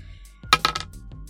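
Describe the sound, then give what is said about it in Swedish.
A quick clatter of a die tumbling across a hard tabletop during a game, three or four sharp clicks in rapid succession, fairly crisp, then settling into quiet; the roll comes up a six. “Det slår jag, slår sex på tärningen.”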